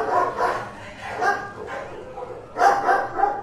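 A dog barks over and over without stopping, a steady string of mid-pitched, slightly yelping barks about every half second, with a louder burst of barking near the end.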